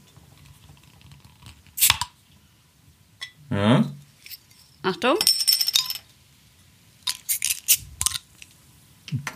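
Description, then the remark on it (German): A beer bottle being pried open with a lighter: several sharp metallic clicks and clinks spread over a few seconds, like repeated attempts, with a brief spoken word in between. “Ich würde sagen, ich mache es jetzt einfach mal auf. Geröff, ähm, geröff. Geröff. Wieder mit dem Feuerzeug.”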